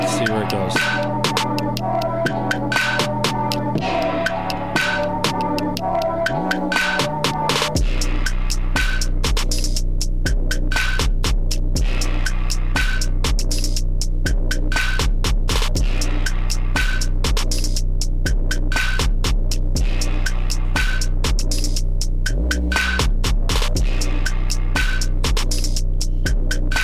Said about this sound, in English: I really like how the how the drums are moving and like the hi hats are moving mm-hmm. with like. I like that. The movement of the beat.